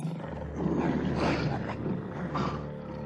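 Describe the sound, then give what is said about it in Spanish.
Fierce tigers roar loudly, their deep, rumbling growls swelling and overlapping in several surges for about three seconds, with no voices present. “Precaución, salida solo por la puerta 7. En todas las otras hay tigres feroces.”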